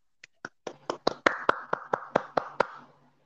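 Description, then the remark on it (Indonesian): A short burst of hand clapping from a few people, starting with scattered claps and building into a quick, steady rhythm of about a dozen sharp claps before stopping. “Tepuk tangan dulu”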